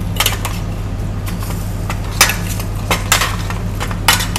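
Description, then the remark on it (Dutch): A spoon and fork scrape and clink against a pan as chicken is tossed, with irregular bright clatters over a steady low hum and faint sizzling, no talking. “Ik hussel uh, de kip een beetje.”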